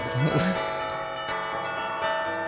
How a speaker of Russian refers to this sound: Мы а, отгоняем сейчас да, да, да, коронавирус. Это животворящий звон.